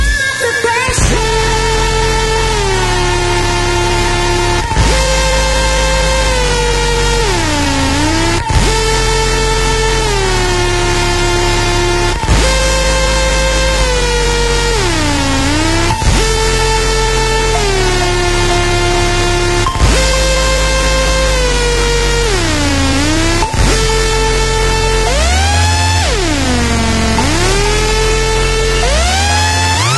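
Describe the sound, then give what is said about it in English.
A short electronic jingle played on Radio Sega, loud sustained synth chords, its phrase repeating roughly every four seconds and ending each time in a swooping downward pitch bend, with no voices over it. “Actually, I did tell you that I was going to play um, Mark's little jingle for every time we mention Mark for being um, in, either in the IRC or listening into Radio Sega.”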